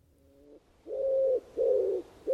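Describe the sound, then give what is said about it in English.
A wood pigeon coos in a steady run of soft, hollow notes, one quieter then three fuller ones, alone against a quiet background. “From the deepest wells of silence, the wood pigeon drew its bubble of sound.”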